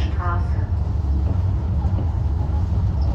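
A suspended monorail train runs steadily along its rail above a river, its metal-on-metal rumble loud and continuous, with a brief tonal squeal near the start.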